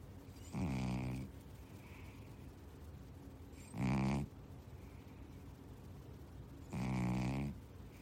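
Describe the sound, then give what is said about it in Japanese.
A sleeping male cat snores three times, each rasping breath about half a second long with a steady pause between, moderately loud over a quiet background; the cat is asleep right next to the person recording. “聞こえましたうちの問題児のオス猫のいびきでございます。”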